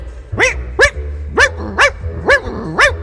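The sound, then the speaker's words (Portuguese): A dog barks six times in a steady, evenly spaced series, each bark sharp with a rising, slightly yelping tone over a low background hum. No one speaks. “Ouviu aí, doido? O cachorro tá bem.”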